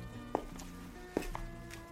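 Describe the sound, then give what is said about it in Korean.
A few soft footsteps cross a quiet café as someone walks back to their seat after ordering, two distinct thuds spaced about a second apart over a low background hum, unhurried. “난 주문을 마치고 자리로 돌아가요.”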